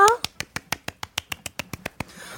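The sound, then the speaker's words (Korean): Audience clapping before a song performance, in a quick, even rhythm: about a dozen sharp, crisp claps spaced evenly apart, each one distinct rather than blurred into a wash, then fading into a soft hiss. “또 많은 기대를 하면서 박수 주세요.”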